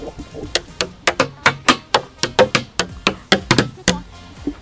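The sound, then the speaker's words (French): Wooden sticks rap on metal cans at a festival's instrumentarium, where visitors strike everything, in a quick, uneven volley of about twenty sharp hits, each a bright clanging knock with a brief ring, some louder than others, and no voices. “C'est un endroit où on a des baguettes de bois et, il faut taper partout. Donc là, il y a des bidons.”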